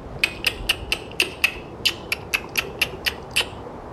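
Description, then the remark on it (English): A person makes a rapid series of sharp mouth clicks imitating how a killer whale communicates, about a dozen crisp clicks in two quick bursts separated by a short pause, with no talking. “Make a clicking noise, like this.”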